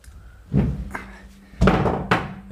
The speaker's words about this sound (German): Was machst du denn da? Ich weiß es nicht, schmeiß mein Handy runter.